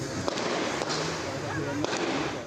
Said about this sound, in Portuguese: Lapa, Zona Oeste de São Paulo, 9 e meia da manhã. Comerciantes registram um intenso tiroteio. Olha lá.